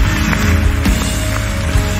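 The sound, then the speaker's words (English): A church audience claps hands together in celebration in a dense, steady patter of many overlapping claps, loud and sustained for the whole moment with no voices standing out. “Come on, can we clap our hands?”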